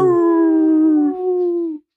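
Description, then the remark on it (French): A person imitates a wolf howl with one long, steady, loud tone that slides slightly downward and then cuts off, heard alone without other talking. “Le, loup.”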